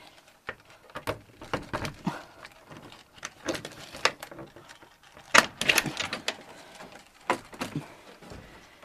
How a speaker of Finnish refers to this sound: Niin, tässä nyt on ovi auki.